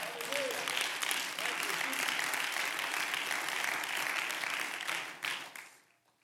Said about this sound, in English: Clap your hands to God.